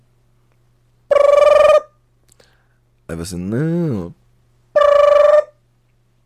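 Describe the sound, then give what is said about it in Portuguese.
A mobile phone rings in two identical bursts, each a steady, bright electronic tone lasting under a second, with a short spoken phrase between them over a low, constant hum. “O celular toca lá.”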